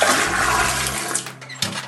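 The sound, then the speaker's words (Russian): A bucket of dirty water is dumped out of a window onto the street at midnight on New Year in one loud gush that splashes for about a second before thinning to a trickle and a final slosh. “И ровно в полночь, когда вот наступает Новый год, с криком «Долой вся грязь прошлогодняя эта вода резко выливается в окно на улицу.”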